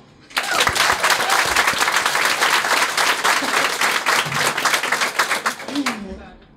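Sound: audience applauding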